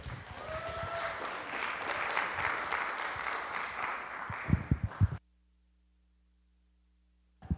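A crowd applauds steadily for about five seconds, a dense wash of clapping that thins into a few scattered claps before cutting to silence.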